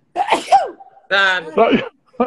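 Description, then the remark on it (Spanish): A loud sneeze with breathy, voiced bursts and short pauses between them, heard alone with no talking. “Salud.”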